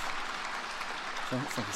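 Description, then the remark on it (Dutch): An audience applauds in a dense, steady wash of clapping that fills the whole clip, with a brief voice rising over it near the end. “Oh, er wordt applaus.”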